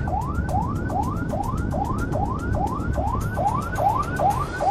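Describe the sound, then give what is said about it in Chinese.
The siren of police car 311 wails in a rapid yelp as it clears the way to an arrest scene about an hour from Shitan police station, each quick rising sweep repeating about twice a second at a steady, loud level over a low rumble of engine and road noise. “我要那个小杨哥的警车三幺幺开开道行啊。”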